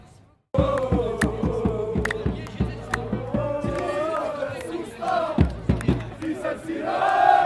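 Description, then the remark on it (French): An Algerian protest crowd in France ululates and cheers loudly and continuously, with sharp claps or beats punctuating the wavering high-pitched calls, bursting in abruptly after a brief quiet start. “Donc qu'est-ce qu'on peut faire On peut faire le yo-yo, on peut les, applaudir.”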